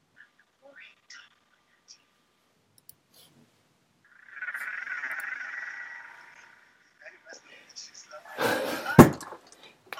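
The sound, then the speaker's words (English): A single loud thump on a desk lands near the end, a sharp, heavy knock after a short scuffle, preceded by quiet clicks and a soft, hissing whisper-like rustle. “oh, loud desk noise.”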